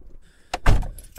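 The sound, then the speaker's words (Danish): The door of a small Suzuki Alto car with a 1.1 petrol engine unlatches with a sharp click, then swings shut with a heavy thud, followed by a faint rattle and a final click. No one speaks. “I min lille bil. Ej, det er sådan en Suzuki Alto.”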